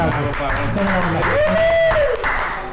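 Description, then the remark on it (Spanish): Steady clapping and applause from a small group, called for the program's sponsor Ron San José, fills the whole stretch, with voices mixed in and a rising, then falling, whistle-like tone sweeping over the middle. “Ay, Vamos, ah, un aplauso para Ron.”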